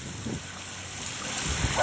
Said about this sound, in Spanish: Eh, mira, el agua.